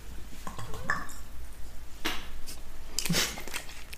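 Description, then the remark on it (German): Glasses clink together in a toast: a couple of bright, ringing chinks with a short, sparkling high-pitched ring. No one speaks, and only faint background noise sits underneath. “Cheers zu unseren wirklich abgrundtiefen Jokes.”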